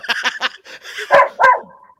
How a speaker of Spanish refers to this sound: Cállate, perro. Entonces. Cállate, perro, que está parando patas con los ojos rojos.